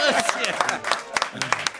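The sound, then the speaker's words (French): An audience claps and cheers in a brief burst of uneven, overlapping hand claps, with voices calling out and chattering throughout, applauding in answer to being asked who has their winter tires on. “Voilà, par applaudissement, qui a ses pneus d'hiver ici?”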